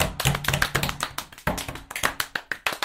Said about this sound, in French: Normalement les gens ont entendu tes petits doigts qui claquaient. C'était pas des petits doigts, mais c'était tellement beau en même temps.